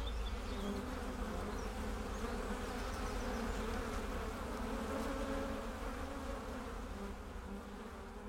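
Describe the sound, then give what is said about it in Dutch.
A dense, steady drone of many honeybees buzzing around a hive, close and continuous for the whole stretch with no voices, easing slightly in loudness near the end. “Dus in, in, in, deze kast zitten misschien 50 tot 60.000 bijen.”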